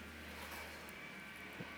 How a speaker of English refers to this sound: And apologies if you can hear the the uh, leaf blower behind me.